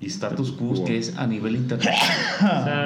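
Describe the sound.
A person talks steadily, then a single sharp sneeze, caused by an allergy, bursts out near the end, loud and breathy, with speech resuming around it.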